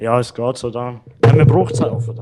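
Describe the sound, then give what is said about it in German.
People talk, then a sudden loud thud cuts in as a microphone stand falls over, with a rattling clatter while the talking carries on. “Das, was ihr jetzt da gehört habt, ist meine Unfähigkeit, gewesen, ein Mikrofon gerade aufzustellen.”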